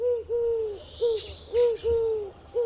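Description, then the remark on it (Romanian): A Eurasian collared dove coos in a steady, repeating rhythm of soft, hollow notes, clear, with faint background bird sounds and no talking. “Însă scoate până la patru rânduri de pui într-un an, așa că avem șansa de a le auzi gânguritul și de acum încolo.”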